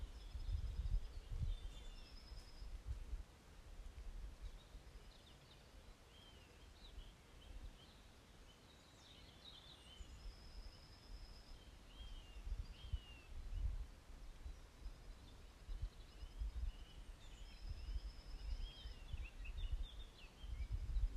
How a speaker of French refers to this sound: sentir aussi avec euh, le chant des oiseaux, la présence des animaux, les bruits naturels de la nature, le bruit du vent.